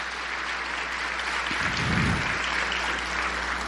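A church audience applauds its volunteers during a service, a dense wash of many hands clapping at even volume throughout, with a brief low thump partway through and no voices.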